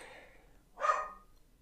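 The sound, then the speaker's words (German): A single short dog bark rings out, preceded by a softer, breathy vocal sound, with quiet background tone around it. “Ach, guck mal, zum Abschluss der Folge Gebell. Nochmal Hund.”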